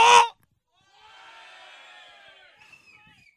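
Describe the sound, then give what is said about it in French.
A brief loud burst opens, then a live audience shouts and cheers together in a sustained roar lasting a couple of seconds before thinning out. “Est-ce que tu es en forme? Brouhaha!”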